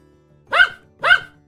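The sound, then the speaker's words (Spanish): A dog, the one Momotaro meets after hours of walking in the tale, barks twice in quick succession, two short, full-throated woofs about half a second apart, clear, with no voices around them. “Dispuesto a cumplir su misión cuanto antes salió del pueblo, y tras varias horas caminando, el valiente Momotaro se encontró con un perro.”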